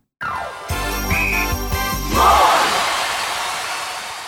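A bright, tinkling notification chime rings out over a dense, noisy background, with a few low rhythmic thumps and a shimmering flourish before the sound slowly fades.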